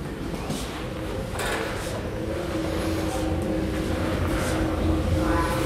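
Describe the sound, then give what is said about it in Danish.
A steady mechanical rumble with a thin, persistent howling whine riding on top from an elevator in motion, holding an even loudness throughout with faint clicks and rattles now and then. “Har du lagt mærke til den lyd? Nej. Som elevatoren siger?”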